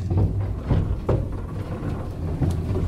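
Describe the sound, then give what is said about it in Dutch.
An elevator descends with a continuous deep rumbling drone, broken by a few scattered metallic clanks and knocks. Steady and fairly loud, with no voices. “Het geluid van de lift naar beneden zakken.”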